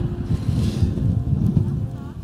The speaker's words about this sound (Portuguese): Como esse vento que a gente não gostaria que estivesse aqui nesse momento.